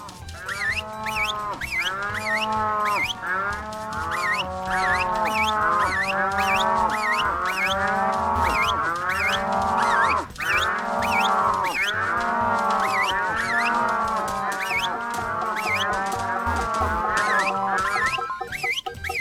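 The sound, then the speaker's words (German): A dense chorus of cows mooing over and over in a video game as a herd is driven along, many calls overlapping in a loud, continuous din with no pauses and no talking. “Null Punkte, da ist noch eine Kuh.”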